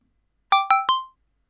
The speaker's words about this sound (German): Moment mal. Was war das? Eine SMS von Anonym.